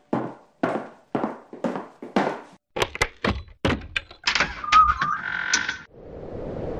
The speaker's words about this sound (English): was that a knock at the door? I heard a knock at the door.